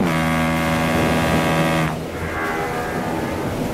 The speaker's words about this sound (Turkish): Oğlum şu ilerideki nedir lan o? Ha? Öttürün bakayım şu geminin düdüğünü. Bir çekilsin önümüzden bu ne ya?